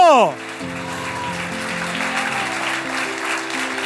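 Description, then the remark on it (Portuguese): An audience applauds in a steady, continuous wash of clapping, while sustained organ or keyboard notes hold underneath after a brief falling sweep at the start. “Aplauda Jesus por isso.”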